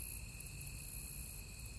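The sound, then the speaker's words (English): Steady, continuous cricket chirping fills a quiet spring night in the dark fields beyond a farmhouse in Mooresville, Indiana, a dense high trill that holds evenly throughout with no voices, just a faint low rumble underneath. “The sound of crickets soothes the man as he settles back in his rocking chair.”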